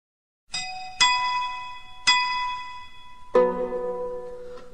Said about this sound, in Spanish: Además, una de las melodías más antiguas que se creen conocer hasta el momento está tallada en una columna griega del siglo I, llamada el epitafio de Seikilo, y según algunos estudios suena así.